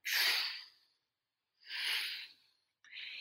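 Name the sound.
voice imitating ocean waves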